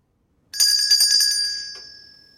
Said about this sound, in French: Est-ce que j'ai entendu quelqu'un devant la porte qui a sonné la clochette Oui, mémé. Est-ce que c'est toi, ma petite fille, qui est là et qui a sonné la clochette